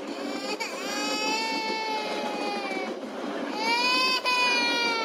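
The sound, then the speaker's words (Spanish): A baby wails loudly and continuously in two long, sustained cries with a brief catch of breath between them, filling the whole stretch with no talking. “No quiero llanto que después sale el pana mío Ricochete allá de Oliver Luis”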